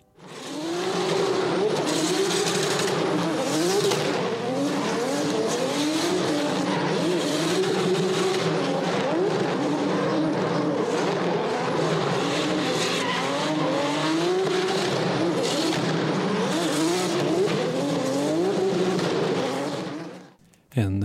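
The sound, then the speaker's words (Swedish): A Toyota 2JZ engine, a Japanese favourite, revs loudly and steadily for about twenty seconds, its pitch climbing and dropping in repeated sweeps, with a rough, buzzing edge and hints of tire squeal. “Toyota 2JZ.”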